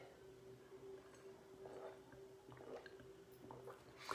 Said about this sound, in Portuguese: Deixa eu beber um copo com água.